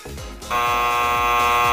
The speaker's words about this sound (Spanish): ¿Qué suena? ¿Hay un timbre?